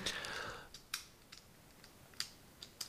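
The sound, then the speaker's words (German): Someone fiddling with a clicking fidget cube: a string of small, sharp plastic clicks at irregular intervals, fairly quiet, with a brief murmur of sound at the start. “Macht man das eigentlich im Hintergrund die ganze Zeit mit meinem Würfel? Das ist ganz, ganz furchtbar nervig.”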